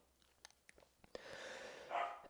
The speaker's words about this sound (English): as you hear my dog bark in the background